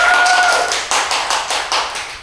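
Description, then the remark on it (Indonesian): A burst of hand clapping as a challenge segment begins, dense and fairly loud, with several sharper claps standing out at an uneven rhythm. A faint high tone lingers briefly at the start; no one speaks. “Tepuk tangan dulu teman-teman.”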